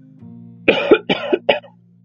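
A quick run of three harsh coughs from someone smoking a cigarette, the first two heavier and the last shorter, heard over a low steady background hum with no talking.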